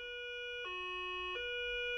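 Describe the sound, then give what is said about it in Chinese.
An ambulance siren sounds on its own in a two-tone hi-lo pattern, a high note dropping to a lower one and back up, steady and clear with no talking. “于是救护车就把筷子老师送到了厨具医院去了。”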